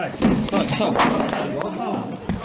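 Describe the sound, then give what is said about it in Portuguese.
Several heavy, irregular thuds as police try to force open the door of a house, striking it hard again and again amid overlapping voices and commotion. “Depois tentam arrombar a porta da casa.”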